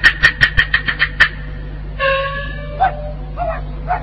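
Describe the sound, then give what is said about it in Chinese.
A stray dog outside yaps in a quick run of about seven sharp, high-pitched barks, then lets out several drawn-out whines and whimpers, with a steady low hum underneath. “原来是条野狗，吓了我一身冷汗。”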